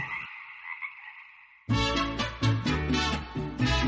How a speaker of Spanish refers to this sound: en las tardes lluviosas y cuando llega la noche se mueven hasta las charcas, se sumergen un poco e inflan su cuerpo y canta mientras flotan con sus patas estiradas. Esos cantos del sapo excavador pueden escucharse a kilómetros de distancia.